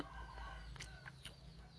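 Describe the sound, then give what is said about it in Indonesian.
Chickens cluck in a few short, bright bursts while a rooster's crow rises through the middle, all over a steady low background hum, with no one talking. “ya aku tidak perlu meminta maaf untuk suara noise noise ayam karena emang begitu adanya jadi ya hanya perlu dimaklumi ya sesimpel itu”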